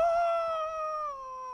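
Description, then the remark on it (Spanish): A voice imitates the scream of a character falling off a cliff, one sustained, fairly loud "ah" that starts high and slides gradually lower in pitch over about a second and a half, with no other talk. “en un momento hay un personaje que va a agarrar a otro y se cae por un precipicio y se escucha que hace ¡Ah!”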